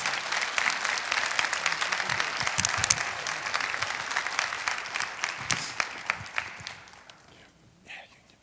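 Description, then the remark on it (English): An audience claps steadily for several seconds, a dense wash of hand claps that gradually thins out and fades near the end. “Well, can you give them a hand?”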